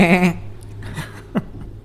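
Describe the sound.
A person imitates a sheep with one short, quavering "baa" bleat, clear, followed by a moment of breathy, softer vocal noise.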